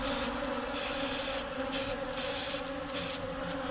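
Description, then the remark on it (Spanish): An insecticide spray can hisses in several short, uneven bursts, the bright airy spray sound coming and going over a steady low hum. “Saqué el insecticida, grité aguanta la respiración. Y empecé a rociar.”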